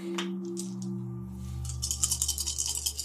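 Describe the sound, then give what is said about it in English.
A handful of dice is shaken and rolled for a damage roll in a tabletop game, rattling and clattering in a quick run of sharp plastic clicks and knocks building toward the end over a low steady hum, with no one speaking. “All the dice.”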